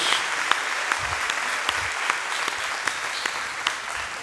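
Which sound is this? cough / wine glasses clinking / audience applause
audience applause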